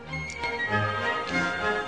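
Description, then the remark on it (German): Mechanical clock sounds as a cuckoo clock and a wall clock are wound: a ratcheting winding mechanism with scattered clicks and a steady ticking, moderately loud, with no voices. “Aufziehen Kuckucksuhr, aufziehen Wanduhr.”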